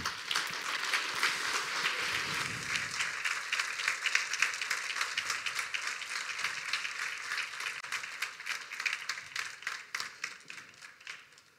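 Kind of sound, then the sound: crowd, welcoming applause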